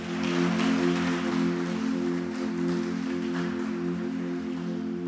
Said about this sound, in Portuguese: Então quem recebe isso aí, aplauda Jesus. Vamos lá junto comigo, de pé.